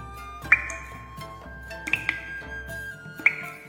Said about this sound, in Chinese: 厕所内流落淌着滴水声，还好有那抹暖阳，才显得房子内不那么孤寂暗沉无光。